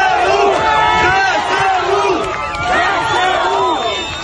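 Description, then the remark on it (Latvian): A large crowd of Kherson residents cheers and shouts in the street, welcoming the first Ukrainian army units, many voices yelling "Kherson is Ukraine" together in overlapping rising and falling calls, loud and unbroken for the whole few seconds. “Helsonā arī iegāja pirmās Ukrainas armijas vienības, kuras vietējie iedzīvotāji sagaidīja ar ovācijām un asarām acīs.”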